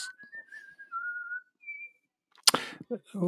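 A person whistles a lilting waltz tune of their own composition in sustained, clear notes, moderately loud, as the closing piece of the evening, followed by a brief burst of noise and the start of someone speaking.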